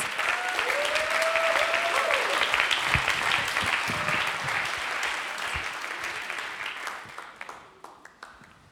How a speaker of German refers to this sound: Gib ihm gerne noch einen Applaus.